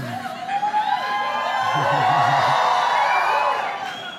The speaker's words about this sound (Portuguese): Esse grito podia ser um pouquinho melhor, né?